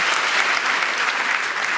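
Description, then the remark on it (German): An audience claps steadily in a small round of applause for the teachers, a dense wash of many hands at an even, sustained loudness with no voices standing out. “Können wir auch mal zwischendurch einen kleinen Applaus für die ganzen Lehrer.”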